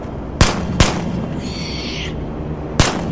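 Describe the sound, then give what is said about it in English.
Three loud, sharp gunshots ring out, two in quick succession and a third after a pause, with a brief high-pitched whine in between and no voices. “At the sound of gunfire, I throw myself to the floor, which is a big mistake as I end up slamming my injured knees to the ground and banging my head on the rock wall.”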